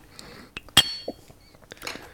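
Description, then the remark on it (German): Two glasses of quickly tapped, foamy beer clink together once in a sharp, bright toast, ringing briefly before fading, with a few softer knocks and rustles around it and no talking. “So, Prost.”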